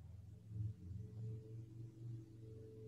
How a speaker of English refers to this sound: there's another car don't know if you can hear. No, I can. It's it's loud. That's a rumbly it's one. Loud. That's a rumbly that's one.